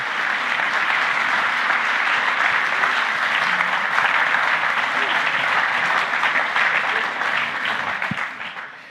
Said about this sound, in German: Auch ein Applaus wert. Bravo. Vielen Dank.